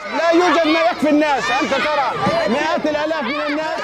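A crowd of children shouting over one another on a street in Rafah, in the southern Gaza Strip, competing for food from a man's large pot, waving pots and empty plastic buckets with outstretched arms; high-pitched voices rising and falling in continuous, overlapping calls with no pause, loud throughout.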